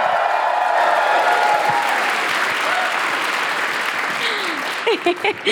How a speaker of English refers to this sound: Will you please welcome the wonderful Mia McKenna Bruce? Thank you. Can we have another cheer for the EE Rising Star nominee, Mia McKenna